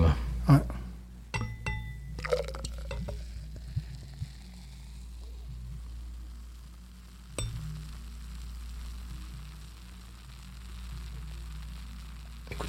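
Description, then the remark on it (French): Glass clinks and a short pour of beer give way to a soft, steady fizzing hiss of too much foam settling, with a brief knock partway through before the crackle fades low. “Là, j'ai même pas, j'ai trop mis de mousse, voyez-vous.”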